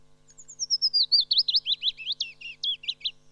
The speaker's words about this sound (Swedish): och där brukar man beskriva lövsångaren, om man ser det i toner så kan sången vara lite lik bofinken men lövsångaren är väldigt, väldigt eh, mjuk, ni hör, och lite vemodig.